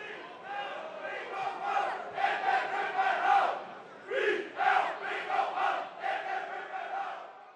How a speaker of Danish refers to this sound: På lægterne står, sidder, råber, synger og hæpper mere end 1600 tilskuere på deres hold.